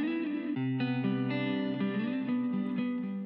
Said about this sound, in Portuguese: Agora, continua aí, é só esperar a vinheta que começa as perguntas e você vai entender tudo.